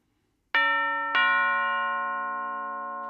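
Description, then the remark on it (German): A doorbell rings at the front door on Christmas Eve with a clear two-tone ding-dong, two bright chimes about half a second apart whose ringing tones linger and slowly fade amid otherwise quiet surroundings. “Wie auch immer, er hatte wie jedes Jahr überhaupt keine Lust auf Weihnachten, als es plötzlich an der Tür klingelte.”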